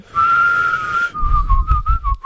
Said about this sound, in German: Und weil mir dann aufgefallen ist, dass man ja gar nicht atmen, das ist ja nicht atmen. Ja, aber du kannst unendlich lang pfeifen, ja, stimmt. Ja, aber das, das Einsaugen ist nicht wirklich.